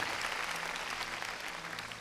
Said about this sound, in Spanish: Démosle palmas fuertes, hermano, a nuestro Señor.